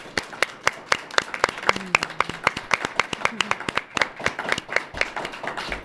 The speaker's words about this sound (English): Can we get a round of applause for both of our candidates, please?